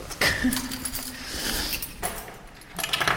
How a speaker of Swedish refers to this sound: Fan, tappade nycklarna.